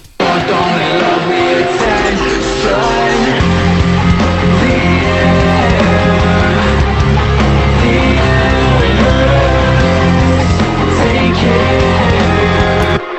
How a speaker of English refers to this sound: So then when it drops again, well, I say drops, it's not an actual goes drop. Back, yeah, goes back to the chorus again. It just it all opens up again. Yeah, which sounds like this.